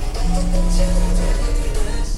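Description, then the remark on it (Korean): A mobile phone buzzes on vibrate with an incoming call in one steady, low hum lasting about a second, over a constant low background rumble with no one talking. “아, 왜 자꾸 전화질이야!”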